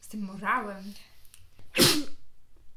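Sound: sneeze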